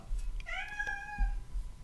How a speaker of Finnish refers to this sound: se on täynnä tällaista kissan huutaa, koska meillä ei voi oikein nauhoittaa kotona ilman, että kissa rupeaa riuhumaan.